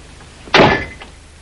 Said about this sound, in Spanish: Juker entra en el piso cerrando la puerta tras sí.